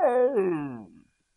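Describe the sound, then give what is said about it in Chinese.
A person's voice imitates a lion's roar with one loud, drawn-out cry that slides downward in pitch for about a second, then breaks off into silence. In a children's story, it voices a little pig trying to roar like a lion after sucking a blue candy. “说着，狗欢叔叔把糖果放进了小猪的嘴里，含了这颗糖果，你就能发出狮子一样的吼声了！”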